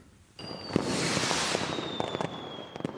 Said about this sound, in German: Besitzer von Haustieren kennen das. Kaum geht an Silvester das Feuerwerk los, sitzen Katze oder Hund verschreckt und manchmal jaulend in der Ecke.